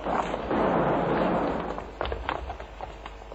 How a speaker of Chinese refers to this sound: 指挥中心，五楼有枪声，五楼有枪声。